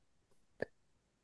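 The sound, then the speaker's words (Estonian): A single short, sharp sneeze bursts out after a faint quick intake of breath, brief, with a quiet background and no talking. “tervist”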